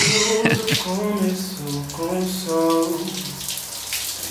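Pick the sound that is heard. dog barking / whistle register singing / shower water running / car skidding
shower water running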